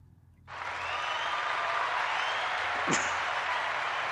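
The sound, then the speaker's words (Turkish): A burst of steady clapping begins abruptly after a brief quiet moment and continues evenly, a crowd applauding fairly loud to send off a guest, with one sharp louder clap or whoop near the end. “Alkışlarla seni uğurluyoruz.”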